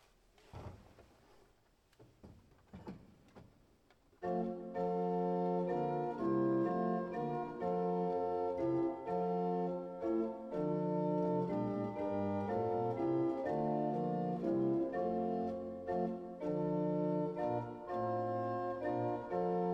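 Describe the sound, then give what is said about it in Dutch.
After a few seconds of faint knocks and shuffling, the original form of a German Lutheran Gloria hymn melody by Nicolaus Decius, as found in the hymnbook, begins, played loudly in full, sustained chords that move steadily from note to note without any voices. “In het liedboek is de oervorm terechtgekomen. Die klinkt zo.”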